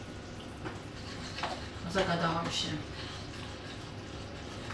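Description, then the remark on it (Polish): Chocolate, butter and sugar for a glaze sizzle steadily in a pan, a soft continuous crackling hiss, with a woman briefly speaking over it midway. “oj, oj, oj, oj, bo mi zaczęło się tu smażyć już.”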